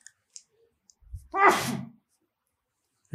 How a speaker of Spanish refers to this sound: Ah, ¿viste? ¿Viste? O sea, me esperé a que pasara el estornudo porque dije, no, si no en la edición, no. Así de, para poderlo cortar. A ver si lo corta.